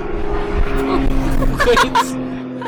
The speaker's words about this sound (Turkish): senin Paris uçağın geldi galiba suya iniş yaptığımıza.